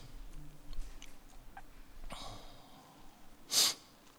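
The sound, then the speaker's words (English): Sniffling by a person who had been crying: a soft nasal sniff followed a moment later by a sharper, louder snuffle through the nose, with quiet breathing in between and no talking. “I'm sniffling, but that ain't because of the that ain't because of the Rona. I was crying.”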